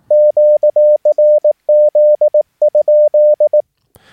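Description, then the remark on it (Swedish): A steady, mid-pitched Morse code tone keys out the Q-code QRZ followed by a question mark, its dots and dashes sent quickly and tightly with almost no spacing, clear with no voices, ending in a faint click. “Och eh, som alltså, ni hörde där så sände jag det ganska tajt där.”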